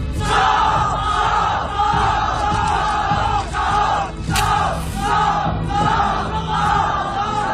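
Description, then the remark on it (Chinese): A large crowd shouts and yells continuously in a loud, dense roar, with voices surging in repeated waves and a brief sharp burst midway: an agitated mob in the scene from the film The Founding of a Party (建党伟业) where Cao Rulin's residence at Zhaojialou is set on fire. “您刚才听到的是电影《建党伟业》中火烧曹宅的段落。”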